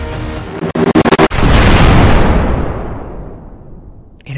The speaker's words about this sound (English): giant explosion of snow goes around you and the tracks and the whole train shake.